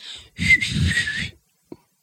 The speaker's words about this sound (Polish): Nie potrafię gwizdać, nigdy nie umiałam. Czasami próbowałam, mogę nawet ci zademonstrować, jak nie umiem.